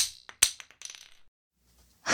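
Wooden divination blocks are cast onto a hard floor while praying to Tudi Gong, the Earth God: a sharp first impact, then a rapid series of smaller clacks and rattles as they bounce and settle, followed by quiet and a soft rustle.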